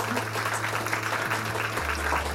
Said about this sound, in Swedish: Och jag tänkte att vi kanske kunde få en liten försiktig applåd så att vi hör att ni är här.